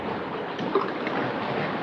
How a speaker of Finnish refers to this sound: Meri jymisee. Tuolla täytyy olla meri. Siinä on meri.